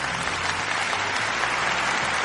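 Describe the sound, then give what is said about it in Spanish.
Steady applause from people outside fills the whole stretch, a dense wash of many hands clapping at once, fairly loud and continuous with no voices standing out. “Gracias, gracias a la gente que aplaude ahí afuera.”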